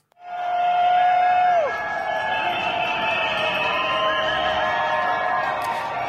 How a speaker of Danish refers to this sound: Det er folk på cykel, der øh, ja, bruger cyklerne til at blokere gaderne i Chiles hovedstad Santiago.